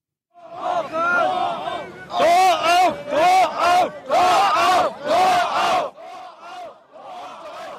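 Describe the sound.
A large crowd in Berlin on 9 November 1989, when the Berlin Wall fell, shouts and chants in loud, rhythmic bursts, many voices roaring together in a repeated pattern, with brief pauses between each swell of cheering.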